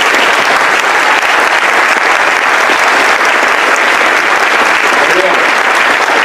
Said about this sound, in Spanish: les pido de favor que den un fuertísimo aplauso a todos sus líderes y a todas las personas que hicieron posible este evento, por favor.